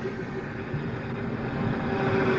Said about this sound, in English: Uh, hold on one second. Just have a big truck passing by.